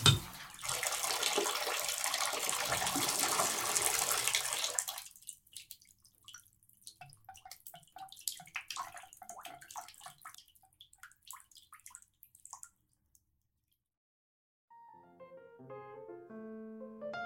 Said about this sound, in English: А сейчас душ в моей парижской квартире все тот же. Но после всего пережитого ощущается он иначе. Ощущается, будто я существовал в двух мирах. Но поток воды везде одинаковый.